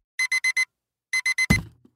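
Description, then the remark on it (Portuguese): An electronic alarm clock beeps in quick bursts, four rapid tones, a short pause, then three more, abruptly cut off by a dull thump. Clear, no voices. “O relógio despertou.”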